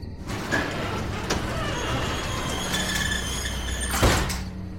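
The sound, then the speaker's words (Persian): A heavy warehouse door grinds and rumbles as it is slid open in the middle of a desert, with low mechanical scraping, a few squeaky metallic tones, and a louder clunk near the end. There is no talking. “در انبارو باز کردم تا یه نگاهی به اطراف بندازم”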